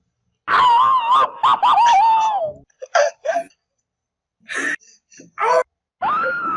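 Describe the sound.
Hoarse, high-pitched screams ring out loud: a long wavering cry first, then a string of shorter strained bursts separated by brief silences, with no talking.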